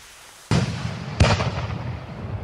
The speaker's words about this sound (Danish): så han går lidt ud for menneskemængden og tænder sit bomberør. Han peger det op i luften, men det er først, da det første skud går af, at han opdager den katastrofale fejl.